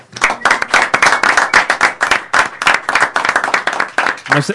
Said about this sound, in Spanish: Eh, muchísimas gracias por venir, chicos. Un aplauso para vosotros también.